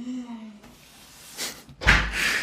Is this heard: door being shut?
yes